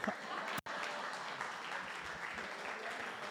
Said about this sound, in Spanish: Un aplauso para Diego y para mí que lo recibí todo.